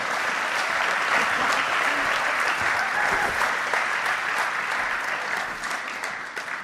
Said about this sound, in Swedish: Tack så jättemycket. Ja. En applåd till er.